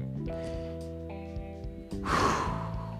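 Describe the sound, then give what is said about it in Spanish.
Soft, steady background music plays, then a long, audible deep breath rushes in as part of a deep-breathing exercise and continues through the end, clearly louder than the music beneath it. “Hagamos el ejercicio de una respiración profunda, ¿no?”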